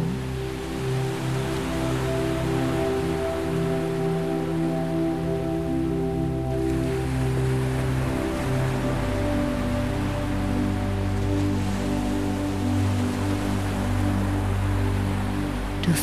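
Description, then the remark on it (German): A steady, continuous rush of ocean surf fills the scene at an even volume, with soft sustained low tones humming beneath it and no voices. “Du lässt deine Augen zufallen und hörst dem Rauschen des Meeres zu.”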